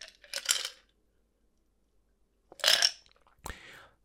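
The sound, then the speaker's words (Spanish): Ice cubes clink and rattle in a glass in three short bursts, a quick jangle, a pause, then two more bright clatters, with no talking. “Obviamente no si estás manejando, eh, pero de hecho yo tengo hielo aquí, puedes escucharlo.”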